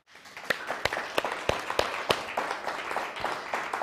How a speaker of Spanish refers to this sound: Eso es todo. Baruch Hashem, pues un fuerte aplauso.